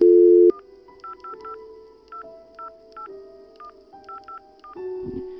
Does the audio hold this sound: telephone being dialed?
yes